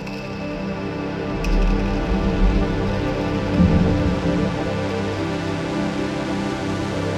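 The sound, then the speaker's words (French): Deep, rumbling cracks and booms of breaking iceberg ice roll on without pause, a dense low roar with crackling texture and one sharper snap early on, fairly loud. “J'ai moi-même enregistré la détonation des icebergs quand la glace craque”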